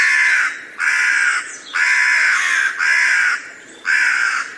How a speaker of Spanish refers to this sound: Después, el grajo chilló por tercera vez y las cornejas dieron su voz de alarma desde los aires.